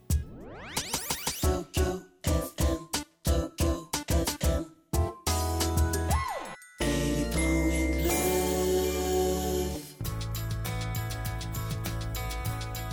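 Music plays with no voices: a rising chime sweep, then a run of sharp rhythmic stabs with brief gaps, leading into sustained, fuller instrumental playing that swells and continues steadily at moderate loudness.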